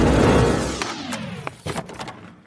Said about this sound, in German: hier stecken wir jetzt die Karte rein und dann öffnet sich zumindest mal die erste Tür